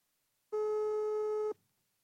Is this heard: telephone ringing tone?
yes